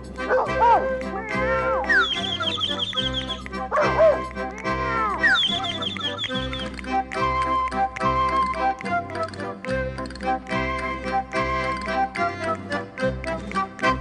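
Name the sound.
dogs barking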